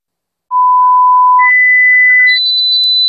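A piercing electronic beep tone representing ringing in the ears, in an advertisement for Sonofim by Pharma OTC, that climbs in three steady steps, from a high pitch to an even shriller one, sounding alone without any voices for about two and a half seconds.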